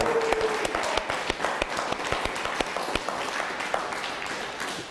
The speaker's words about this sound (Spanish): Un fuerte aplauso a Puerto Rico.